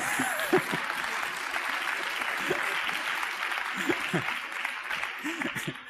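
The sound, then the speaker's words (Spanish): Steady audience applause for a speaker's verbal slip during a talk, a dense wash of many hands clapping at a fairly loud, even level for several seconds, with some murmuring voices mixed in beneath it. “es duro que lleve dando mi mejor yo un buen rato y que lo único que aplaudáis sea una cosa en la que me confundí.”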